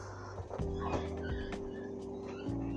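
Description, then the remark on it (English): Several sharp dog barks pop out at irregular intervals over a steady low background hum, with no one speaking. “Oh my gosh, there's dogs.”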